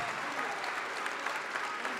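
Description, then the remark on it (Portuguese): A church audience applauds as more people come forward, a steady wash of clapping hands at an even level for the whole stretch, with no voices standing out above it. “E está chegando mais, vamos aplaudir mais.”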